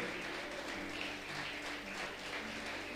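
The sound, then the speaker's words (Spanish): An audience applauding for Christ, a dense, steady wash of many hands clapping at once that holds an even loudness throughout, with no voices standing out above it. “Dale un aplauso grande a Cristo.”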